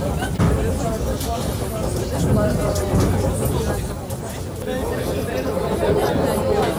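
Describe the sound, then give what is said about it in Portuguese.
Steady low rumble inside a train bound for Ukraine as it starts to move, with passengers' voices chattering indistinctly throughout, filling the space at a constant, fairly loud level. “O trem começa a se mexer aqui.”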